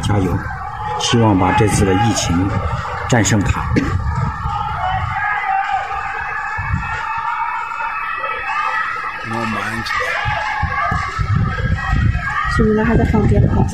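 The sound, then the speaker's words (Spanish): Voices shout and wail from open windows and balconies across a city, people calling for help and shouting encouragement, overlapping and echoing from many directions, with a steady wash of crowd noise and a faint siren-like tone in the background. “Escuchen nada más los gritos de lamento, los lamentos en toda la ciudad tienen abiertas las ventanas en los balcones, sale la gente a pedir ayuda”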